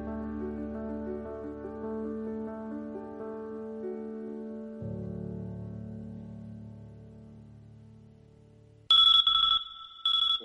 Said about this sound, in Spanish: Si un bip, bip, bip, bip consigue sacarte de tu cama una mañana de diciembre